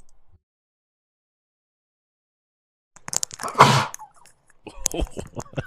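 A single loud, close sneeze bursts out after a few seconds of silence, followed by scattered laughter and rustling noises.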